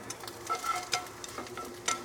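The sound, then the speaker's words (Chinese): A spatula scrapes and taps against a pan as golden fried eggs are lifted out after the heat is turned off, with a few sharp metallic clinks over a faint lingering sizzle. No one speaks. “好，我的蛋都已经炒到金黄色了，就可以关火喽。好，那我们现在来把它起锅。”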